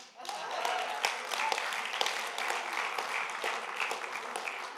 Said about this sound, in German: Wie war das noch, wenn einer klatscht, klatschen alle?